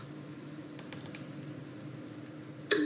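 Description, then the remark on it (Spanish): A few soft, quick key taps click in close succession over a steady low hum as someone presses the Command key and then the Touch ID button, at the top right of a MacBook keyboard, three times to turn on VoiceOver, followed by a brief, brighter electronic tone at the very end. “Y ahora voy a activar VoiceOver pulsando comando y tres veces el botón de Touch ID que está arriba a la derecha.”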